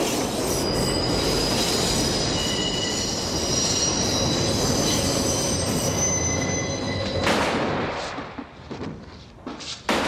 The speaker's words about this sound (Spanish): porque eh, eh, llegamos a escuchar el sonido del tren, pero dentro de la cabeza de Michael Corleone.